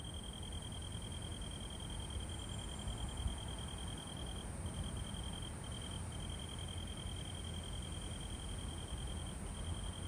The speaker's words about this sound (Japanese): で、この後が夕方の虫の鳴き声です。